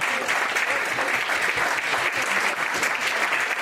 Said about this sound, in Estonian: võtame ta palun suure aplausiga vastu.